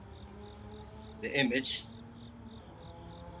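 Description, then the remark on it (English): Steady, evenly spaced cricket chirps repeat throughout, outdoors at night in a parking lot, with a man briefly speaking a couple of words partway through over the ongoing chirping. “As you can hear the crickets, I'm right outside in my parking lot.”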